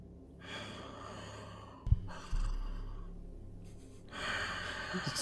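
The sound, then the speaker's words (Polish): Slow, heavy breathing from the shadows along the walls of a nave, three long drawn breaths with short pauses between, the last one harsher and louder, with a faint low thump between the first two. “I z tych cieni, kiedy je dostrzegasz, słyszysz oddech.”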